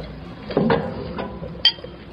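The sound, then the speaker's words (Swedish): Tea being poured from a teapot into a cup: a short burst of splashing liquid, then a single bright, ringing clink of porcelain near the end, with no talking. “häller upp lite te här.”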